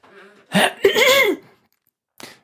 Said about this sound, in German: Ich kann, kann mich räuspern. Ja, mach mal.